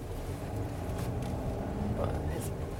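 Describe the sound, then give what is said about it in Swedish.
Steady, low rumbling road noise from inside a car driving in Stockholm on the way to Café Opera, constant and droning throughout, with soft, indistinct voices murmuring underneath. “vi är eh, på väg till ett av de ställena som du ville att vi skulle ta bilen till.”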